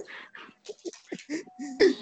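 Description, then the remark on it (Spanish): A dog whimpers in a run of short, breathy whines and squeaky high yelps, ending with a louder, strained cry; no one speaks. “qué te hicieron los perros, güey, al último? Ya se acopló con ellos, ya son mis compas ahorita.”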